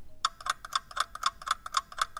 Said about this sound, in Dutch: De klok loopt terug de andere kant op.